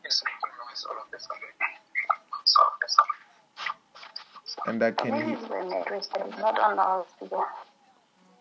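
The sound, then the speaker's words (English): Voices come through a phone on loudspeaker with a tinny, radio-like tone, and the speaker's own speech doubles back on itself in an echo, overlapping words at moderate volume. “And I could hear myself echoing again after myself.”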